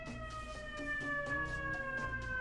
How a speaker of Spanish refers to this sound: dejen, que pase el camión de este de, de, basura, iba a decir. No, no, es, un... Son los bomberos. El heroico cuerpo de bomberos de, de la ciudad de Nueva York. Por cierto, ayer... Déjenme que pase la sirena ahora sí.